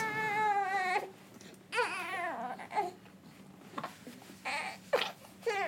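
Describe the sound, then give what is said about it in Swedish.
One of two babies cries in a long, wavering wail, then breaks into short bursts of babbling and fussy whimpers, fairly loud. “Vi har två bebisar som inte vill vara tysta. De vill vara med.”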